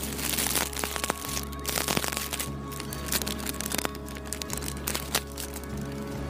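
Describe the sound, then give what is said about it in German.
Crinkling vacuum-sealed sausage packaging being handled at a stand of packaged meats, with irregular crackles and sharp snaps over a low steady hum, fairly loud throughout and without speech. “Also schön eingeschweißt immer hier.”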